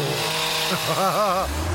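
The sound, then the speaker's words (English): Someone vocally imitates a road saw cutting: a brief, buzzing, warbling drone with revving pitch swings, fairly loud, lasting about a second over a low background rumble. “Or a road saw.”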